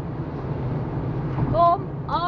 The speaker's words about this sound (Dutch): Misschien hoor je dit. Ik zit in de auto en eh, ik ga een paar dagjes weg.